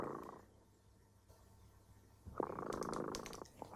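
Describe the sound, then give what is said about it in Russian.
A pet cat purring, a steady low rumble that starts softly, fades for a moment, then swells louder with rhythmic breaths for the last second and a half. No one speaks. “Слышите? Наш кот дремота запел свою песенку.”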